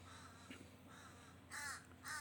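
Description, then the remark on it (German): Ravens caw loudly in two harsh bursts, preceded by fainter calls, over a steady low background hum. “die Raben sind gerade hier ein bisschen laut.”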